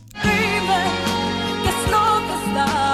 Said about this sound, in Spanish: Eso que se escucha es la canción.